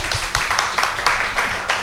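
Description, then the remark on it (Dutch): A short burst of steady clapping, a handful of people applauding together in a quick, fairly even rhythm, moderately loud, with no voices over it. “Oh, hij krijgt wel applaus.”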